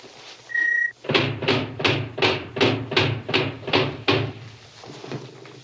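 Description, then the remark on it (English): Steel shutters, installed by the robot Robby, close: a brief electronic tone, then about nine loud, evenly spaced metallic clanks over a low mechanical hum, stopping abruptly. No one speaks. “I had Robby install the steel shutters before I realized how altogether safe I am here.”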